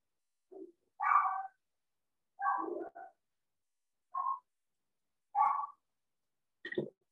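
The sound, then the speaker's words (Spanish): The speaker's own pet dog barks in the background, about six short, separate yips spaced unevenly over several seconds, fairly quiet and with no talking. “Yo escucho un perro. Ah, ese es mío.”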